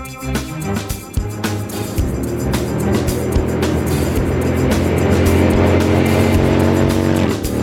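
Motorcycle engines start up and rev loudly, their growling pitch climbing as the bikes pull away together in one continuous, roaring rumble.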